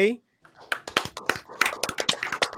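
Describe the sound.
Applause from a small group: a brief voice, then irregular, fairly close claps that keep going for a couple of seconds, scattered rather than a dense roar.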